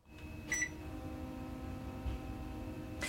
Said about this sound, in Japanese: エアコンの起動音に決まってるやろわかるかでもねエアコンの起動音これ身近に潜む幸せな音ですよねこういうものに気づける人間になりたいですね